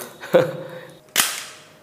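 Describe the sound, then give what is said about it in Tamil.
Two sharp metallic clicks, fairly loud, about a second apart, from a pistol loaded with dummy blanks and in firing condition, its trigger clicking without firing; the first has a brief ringing tail, with no talking. “இதே பிளாங்க்ஸ் தான் இதுக்கு வரும் டம்மி பிளாங்க்ஸ் எல்லாமே இதுக்கு அந்த மாதிரி லோடிங் இல்லை எதுவுமே கிடையாது இது போட்ட உடனே இது ஃபயரிங் ரெடியாக இருக்கும் இப்போ ஃபயரிங் கண்டிஷன் அடித்தா வெடிக்காது”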